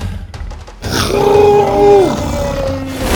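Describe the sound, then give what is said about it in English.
A loud roar from Buck the dinosaur as he pushes past fireballs bellows up after a brief quiet start, holding a deep, tonal growl for about a second before trailing off into a lower rumble. No talking. “With a roar, Buck pushed by two more fireballs until they'd reached the end, and the last fireball missed Bo's back by inches.”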